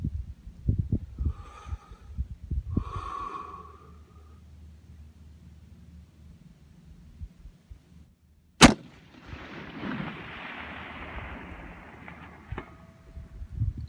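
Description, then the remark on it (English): A single sharp, loud crack of a long-range sniper rifle shot at 1250 yards in a slight crosswind, fired by Phil as practice for the Ryder Cup, followed by a long rolling rumble that slowly fades. A couple of brief breathy sounds come before it in near quiet. “How's today's long-range sniper shooting preparing me for the Ryder Cup?”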